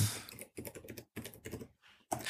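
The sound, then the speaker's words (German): Rapid clicking of computer keys in short bursts separated by brief pauses, fairly clear, with no voices. “Äh, ich höre dich auch tippen, dann.”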